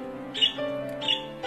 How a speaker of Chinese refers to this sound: 相思鸟可真是非常美丽的鸟儿。它们不仅看上去很神奇，草绿色的身体光滑可爱，还有一条长长的蓝尾巴。